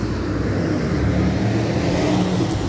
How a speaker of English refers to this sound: I'm letting a big truck pass